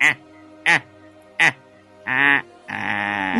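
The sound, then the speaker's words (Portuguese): A voice imitates a guinea fowl's call as a laugh, with three short, nasal, squawking bursts, then a longer one and a final drawn-out, raspy cry, loud. “Eu acho que ele aprendeu a rir com uma galinha da, da Angola, né?”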